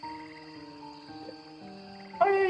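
A frog croaks steadily in a low, buzzing drone with sustained tonal pulses, growing louder and brighter near the end. No voices are heard.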